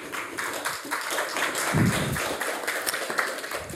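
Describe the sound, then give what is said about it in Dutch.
An audience applauds Professor Xander Koolman, invited to give a short introduction: a dense, even wash of many hands clapping together for a few seconds, fairly loud and sustained throughout, with no one speaking over it. “dus ik wil graag een warm applaus voor Xander Koolman.”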